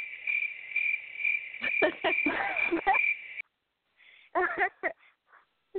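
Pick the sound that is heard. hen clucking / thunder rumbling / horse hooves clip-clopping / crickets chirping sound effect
crickets chirping sound effect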